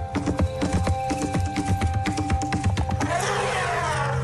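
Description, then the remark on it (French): Rapid, uneven hoofbeats of a galloping horse thud in a steady running rhythm, then give way to a rushing, hissy wash of noise near the end. “Le galop d'un cheval n'évoque-t-il pas un rythme de percussion”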